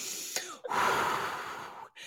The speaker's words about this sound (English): with a big cleansing breath afterwards yeah. so that your breath so that you are breathing again